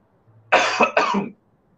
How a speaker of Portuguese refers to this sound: Não é Covid, nem a H3N2, viu? É tosse, garganta secou.